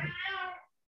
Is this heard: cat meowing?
yes